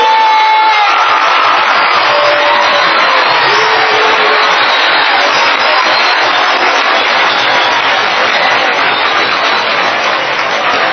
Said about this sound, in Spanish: Oigan, le mandamos un aplauso fuerte para mandarle buena vibra a nuestro presidente.